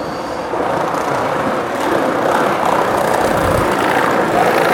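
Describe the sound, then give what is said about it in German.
A continuous, loud rolling rumble of hard wheels on pavement, a skateboard passing by in the middle of the roadway with gritty low-end roar and scraping noise that swells slightly and holds steady, no voices. “ist ein Skateboard, der da in der Mitte der ja, Fahrbahn den, fährt. den lassen wir da vorbei donnern.”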